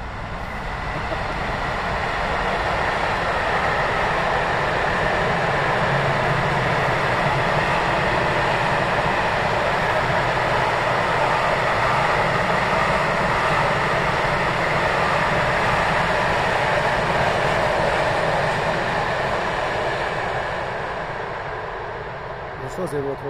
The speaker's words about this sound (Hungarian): mert ez egy tehervonat volt, és nem, nem személy.